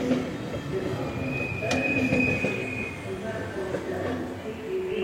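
A train's brake test: a steady mechanical rumble with a sustained high-pitched whine and a sharp burst of hiss partway through, all at an even loudness.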